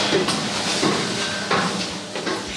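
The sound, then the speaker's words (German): A small hatch being worked open high up in the Astropeiler tower, beside the second gearbox for the mirror's tilt function: a few dull metallic clunks and scrapes spread over a couple of seconds, with a brief thin squeak in the middle, over a steady noisy background. “hier ist eine kleine Luke, die kriege ich aber hoffentlich ganz einfach auf.”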